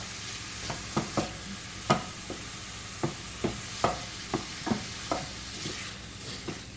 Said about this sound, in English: So I'm just mashing this sausage into little tiny pieces in the frying pan and keeping them scooted around to make sure that they get done all the way through.